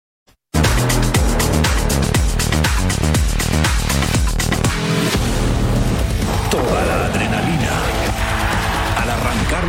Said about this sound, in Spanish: motores. 500 millas por el premio mayor. Daytona 500 por Fox Deportes.